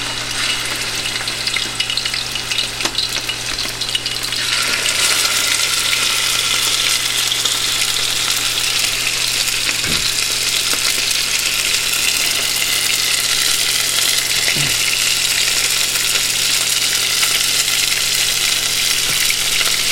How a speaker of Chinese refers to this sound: 我们现在煎的就是传说中造成地球暖化的元凶——畜牧业里面的肉牛。应该可以翻面了。